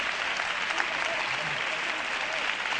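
Dense, sustained applause from a large theatre audience at the Teatro Cervantes, standing up from their seats in the stalls and boxes: a steady roar of many hands clapping at once with no pauses, an enthusiastic standing ovation after a performance.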